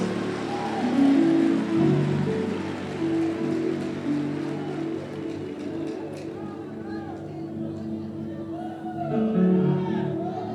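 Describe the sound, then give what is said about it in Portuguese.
A large audience at a religious service claps loudly and steadily for several seconds, a dense wash of applause mixed with crowd voices and sustained musical tones, easing slightly before swelling again at the end. “Alguém pode dar um aplauso bem forte, tem palavra sendo liberada aqui hoje.”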